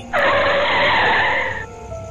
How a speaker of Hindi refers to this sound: फिर ना जाने उनको क्या ख्याल आया आखिर विराट ने गाड़ी रोक ही दी